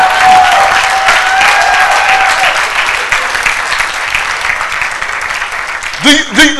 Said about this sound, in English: I have one of the best choirs. I have to be reminded that, oh, these guys are really good. Why, why not you, why are you beefing? Clap for them now.